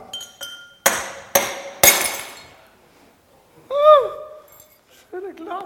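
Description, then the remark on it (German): A drinking glass is smashed with three sharp, loud cracking blows a half-second apart, each leaving a brief glassy ring, followed by a short pained vocal cry and another brief voice. “Der eine wurde so verletzt, dass was zerbrochen ist.”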